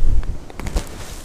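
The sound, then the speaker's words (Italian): Microphone handling noise: a few soft clicks and fabric rustles over low rumbling thumps as a clip-on mic is adjusted on a sweatshirt to hold it more steadily in the wind, with no talking. “Senti un po' di casino perché adesso mi metto il microfono un po' più stabile perché sull'accetto della, della felpa e con sto vento mi si, mi si sballotta tutto, invece così ecco, così non dovresti sentire ancora meglio”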